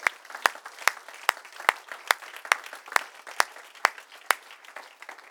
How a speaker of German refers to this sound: Gott ist gut, Freunde. Geben wir Jesus einen Applaus heute Morgen.